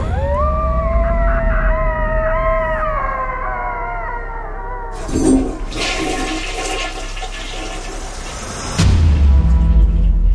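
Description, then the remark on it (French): A man shut in a toilet gives a long, wavering, mournful howl of despair like a coyote's, which rises and bends for several seconds, then gives way to the loud rushing gurgle of a toilet flushing. “Il court s'enfermer au water, où il pousse un long cri de désespoir.”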